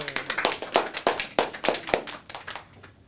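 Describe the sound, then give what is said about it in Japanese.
A short burst of applause from a small group, with quick overlapping claps at a steady moderate volume for about three seconds before fading out. “はいありがとうございます皆さん拍手”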